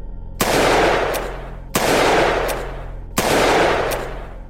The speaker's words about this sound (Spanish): un hombre se le acercó por la espalda y le hizo tres disparos en medio de la acera.